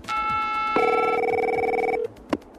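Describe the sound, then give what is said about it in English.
A telephone rings with steady electronic tones that shift pitch partway through, sustained for about two seconds, then cut off by a brief click as the call is picked up at a roadside assistance call center in Johnson City, Tennessee, reached by pressing a button on a car's dashboard. “Instantly, you're connected with the National Gone Star Call Center in Johnson City, Tennessee. Here's an actual call recorded earlier this year.”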